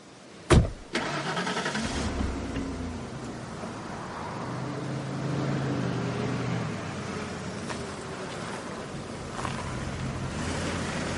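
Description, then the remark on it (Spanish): A sharp thump near the start, then a car engine starts in a motel parking lot and the car drives off onto a road, its steady rumble rising as it pulls away amid broad road and wind noise. No voices. “se marcha. Se incorpora una carretera.”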